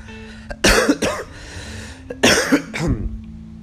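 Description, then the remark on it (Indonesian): Two harsh, explosive coughing bursts, each a quick cluster of several loud coughs, from a lingering cough after an Omicron COVID infection, with a brief quiet pause between them and no talking. “terus kayak batuk peledak tuh nggak hilang-hilang”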